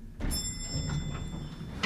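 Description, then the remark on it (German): Elevator doors slide open at the basement level with a low mechanical rumble and a soft thunk at the start, a faint high whine hanging over the motion, ending in another small knock. “Schließlich öffnen sich die Türen wieder.”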